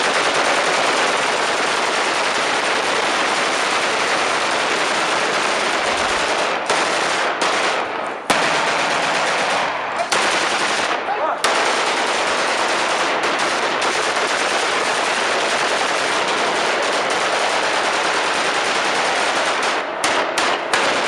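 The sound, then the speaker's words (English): Sustained, dense machine gun fire roars continuously for about twenty seconds at nighttime, loud, with rapid overlapping bursts and only a few brief dips in the barrage. “It was a little muffled under the gunshots, but I'm pretty sure someone said, "I fuck Santa.”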